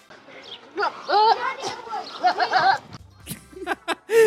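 A goat bleats loudly and close by in a few quavering, drawn-out cries, followed by a couple of sharp knocks and one last short bleat.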